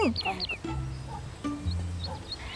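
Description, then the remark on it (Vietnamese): A small bird sings in quick bright chirps and short whistled notes, scattered across a few seconds, over a low steady background hum. “Nè, chú chim Chú chim kia ngừng hót đi Có cái gì mà vui vậy hả”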